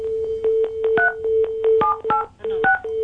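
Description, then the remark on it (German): A rapid string of telephone keypad dialing tones, short steady two-pitch beeps in uneven succession with brief gaps, played alone without any talking. “Der wählt da lustig rum irgendwie.”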